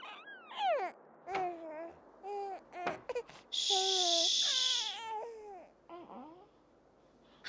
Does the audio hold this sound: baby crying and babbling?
yes